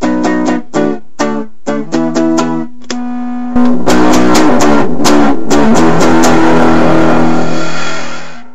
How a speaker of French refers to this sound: que l'on nomme la distorsion